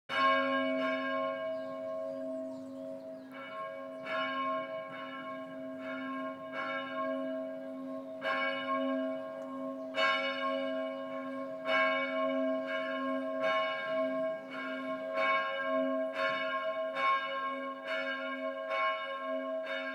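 A church bell rings steadily and resonantly, its strikes repeating in a regular rhythm with a sustained humming tone lingering between them, heard alone without any voices.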